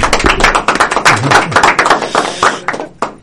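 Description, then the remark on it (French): Loud applause from a group for the candidates, many hands clapping quickly and unevenly in a dense, steady patter that holds throughout and thins slightly toward the end. “Ah, moi, tout ce que je veux dire, c'est une bonne main d'applaudissements à nos, euh, nos candidats ici.”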